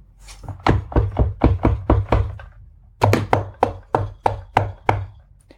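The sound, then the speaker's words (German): Firm knocking on the wooden door of a forester's house in the morning, two quick bursts of rapid raps with a short pause between them, loud with no voices. “Am nächsten Morgen, der Förster war gerade aus dem Bett gestiegen, klopfte es an die Tür.”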